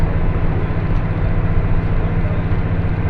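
Steady, loud low rumble of a two-car train in motion on the IGR Iwate Galaxy Railway and JR Hanawa Line in Japan, between Morioka and Ōbuke, heard from inside a carriage, a continuous droning hum with a constant roll and no voices.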